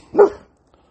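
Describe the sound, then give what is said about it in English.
A single sharp bark from the speaker's dog, Coon, fairly loud, followed by a short quiet tail with no talking. “That's my dog.”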